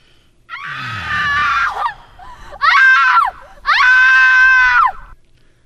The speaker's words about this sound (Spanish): O sea, ese grito no va ahí tampoco.